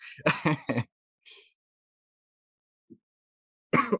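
A person getting over a cold, in winter in Massachusetts, coughs in a quick cluster of three or four harsh bursts, then a softer one, a long quiet gap, and one more loud cough at the end.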